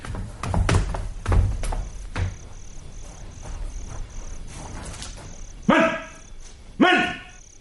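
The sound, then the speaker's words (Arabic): A dog lets out two loud barks about a second apart near the end, following a stretch of scattered thumps and clatter with a faint, steady high-pitched tone in the background. “الكلب الكلب”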